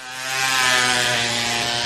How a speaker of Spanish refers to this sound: El chico conduce una moto.